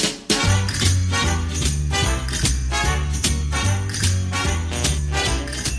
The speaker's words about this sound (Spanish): tuvo la ocurrencia de empezar este nuevo Protagonistas con la versión instrumental